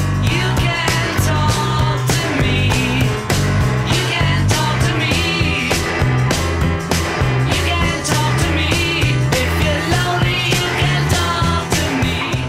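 A loud, full-band rock song in a remixed version plays, its steady snare drum hits landing on the two and the four with a noticeable echo trailing each one, under bass and guitars, with no talking.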